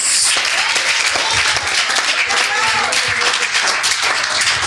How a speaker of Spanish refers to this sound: ¿Por qué no le da un fuerte aplauso? Aplauso a la presencia de Dios.